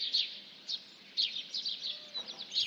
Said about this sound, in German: Wir haben ja mal den Vergleich. Hier ist das weiße Rauschen und hier das Vogelgezwitscher.